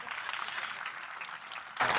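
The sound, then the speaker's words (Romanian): An audience claps steadily in a dense, continuous patter that swells noticeably louder for the final moments, with no voices standing out over it. “aplaudați vă rog frumos.”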